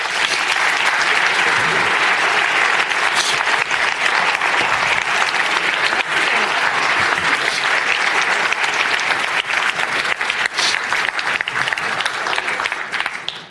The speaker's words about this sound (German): Und weisst du, sie machen eine ganze gewaltige Arbeit. Applaus für euch.